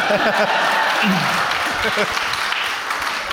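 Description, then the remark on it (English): An audience applauds steadily for about three seconds, a dense, even wash of clapping that stays loud throughout, with some voices and brief cheers audible underneath. “All right, you can't use that tipping your hat thing to get applause anymore.”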